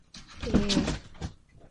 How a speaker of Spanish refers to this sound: mi gato se cayó.